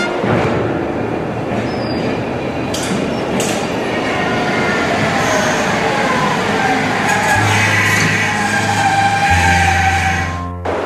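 A train entering a single-track section rumbles loudly and steadily along the track, with clattering wheel noise and a low droning hum joining near the end before the sound abruptly drops away as it comes to a stop.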